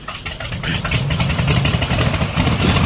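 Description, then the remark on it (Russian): A propeller engine starts up and settles into a loud, steady low rumble with a throbbing pulse, growing slightly stronger over a few seconds. No one speaks. “Маэстро, э, будьте добры, э, запустите мой двигатель.”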